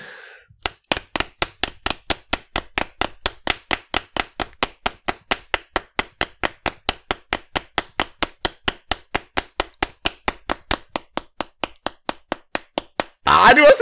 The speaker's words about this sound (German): Ich muss 54 mal klopfen, ne? Ich muss 45 mal klopfen.